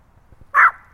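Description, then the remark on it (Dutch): A single sharp, high-pitched bark from one of two very small dogs, loud, after a moment of quiet background, in the Kelmonderbos woods in Beek. “Je hebt eh, twee hondjes meegenomen, dat zijn jullie twee hondjes.”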